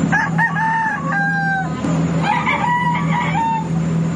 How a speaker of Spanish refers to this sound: Entonces, bueno, ahora escuchen este, este gallo que cantaba en un barco que nos tomábamos hasta desde Siquijora de Dumaguete.